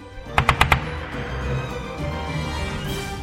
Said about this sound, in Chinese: 他们三个人爬到离那头大象约五十公尺的地方，一起开火。